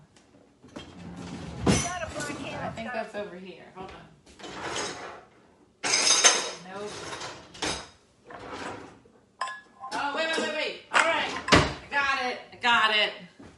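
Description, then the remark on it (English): Metal utensils, including a knife, a corkscrew and scissors, clatter and rattle in a kitchen drawer in a few sharp bursts as someone rummages, with people talking between and over the noise. “That's a knife. I found a corkscrew.”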